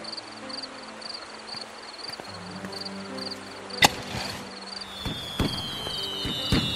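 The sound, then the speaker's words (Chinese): Fireworks brought back from Chang'an many years before going off: a sharp bang around the middle, then a whistling streak and scattered crackling pops, over steady chirping insects and low sustained musical tones. “这烟花是你师傅从长安带回来的，那么多年了，不知还可否燃放？”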